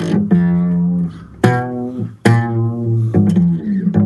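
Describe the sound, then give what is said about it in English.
A fretless string instrument plays a handful of low, sustained notes alone, each one wavering and sliding slightly off pitch, giving a wobbly, out-of-tune sound. “This is uh, this is my terrible intonation because I don't play fretless instruments.”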